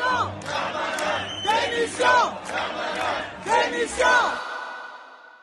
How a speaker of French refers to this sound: Une clameur explose dans l'hémicycle. Personne ne, s'attendait vraiment à ce résultat-là. Vraiment, on sent une forme d'électricité dans l'hémicycle puis résonne euh, dans les bancs euh, des députés des Darmanin démission.